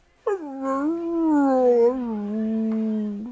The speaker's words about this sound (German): Mit einem herzzerreißenden Jaulen fügt er sich deinem Befehl und legt sich dann Bauch da vor die Zimmertür und schaute ich aus großen, putzigen Hundeaugen an und nach dem Motto, bitte nimm mich doch mit, ich mag nicht alleine bleiben.